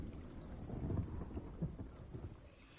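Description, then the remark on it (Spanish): A low, rumbling roll of thunder swells and fades over a steady background of rain and wind, with no one speaking, during a lightning storm at night over the canals of Venice. “Hay relámpagos en el cielo.”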